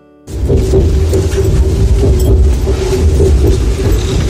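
A continuous loud rumble of an electric commuter train from Moscow rolling along the rails as it arrives at Smolensk station, Russia, with a steady low hum, a persistent tonal whine and faint rhythmic clatter, heard from inside the train.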